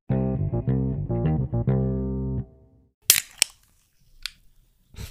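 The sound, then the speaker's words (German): A short tonal jingle plays, then a drink can is opened: a sharp metallic crack, a second snap, and brief fizzy hisses, with a faint click at the end. “Das Auch noch richtig so ich habe wieder eine Dose geöffnet.”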